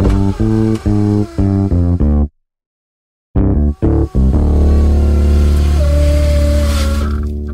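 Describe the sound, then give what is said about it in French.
A Mazda turbocharged car engine, originally developed for the CX-9, revs in several short, loud bursts, falls silent for a moment, blips twice more, then settles into a sustained, steady roar. No voices. “Depuis que Mazda a commencé à, mettre ce moteur-là qui avait été développé originalement pour le CX-9 parce qu'il remplaçait le V6 Ford de, 3.7 litres qui buvait de l'essence comme ça.”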